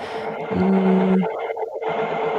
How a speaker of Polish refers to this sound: Mamy jakieś zakłócenia przez chwilę. Tak, bardzo przepraszam, ale moja drukarka okazuje się być wrogiem nie tylko kościoła, ale również audycji radiowych.